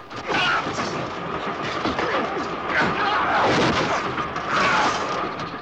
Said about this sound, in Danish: Hør bare to mænd, der slås. Kød mod kød. Øh, slag på slag.